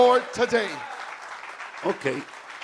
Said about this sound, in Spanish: Dale un aplauso poderoso al Señor ahora.